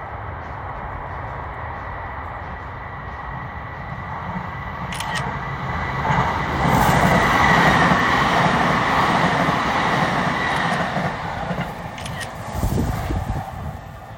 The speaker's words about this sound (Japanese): そんな簡単すぎじゃん電車が通過する音じゃないの